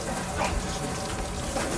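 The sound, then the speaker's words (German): Water gushes from a burst pipe in a steady, forceful rush without pause, a continuous hissing gush with no voices over it. “Ausgerechnet, wenn man keinen Klempner kriegt.”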